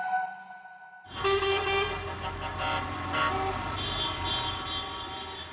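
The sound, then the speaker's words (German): A dense chorus of car and truck horns honks continuously from a convoy of about 1000 vehicles, including trucks, at a fairground showmen's demonstration around Potsdamer Platz in central Berlin, loud and overlapping, with engine rumble underneath and no talking. “Es war eine große Demonstration der Schausteller, eine riesige Kolonne aus rund 1000 Fahrzeugen, LKWs”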